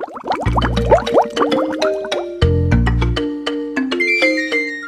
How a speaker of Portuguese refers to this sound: Trazendo mais um episódio do Crônicas da Café Sabor. Solta a vinheta, Luiz.